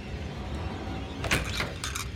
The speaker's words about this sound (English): A door slams open, the wardrobe.